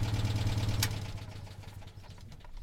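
A car engine hums steadily with a low, throbbing drone as someone drives their father's car to a wine cellar in the Saint-Pourçain vineyard area, loudest at the start and easing slightly as it runs, with a brief higher whine early on and no voices.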